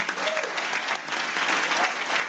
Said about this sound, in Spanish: Alguien le da un aplauso al Señor como si lo creyera.